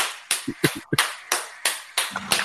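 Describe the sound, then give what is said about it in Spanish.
Short burst of applause: about eight sharp, loud hand claps in a loose, uneven rhythm over two and a half seconds, with faint low vocal murmurs between some claps. “¡Aplauso!”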